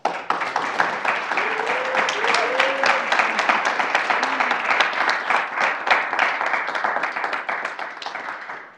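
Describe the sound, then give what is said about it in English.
A crowd applauds a panel of speakers steadily, dense rapid clapping holding at an even loudness for several seconds before tapering off slightly at the end, with a few faint voices calling out underneath. “And so let's start with a round of applause for our panelists as well.”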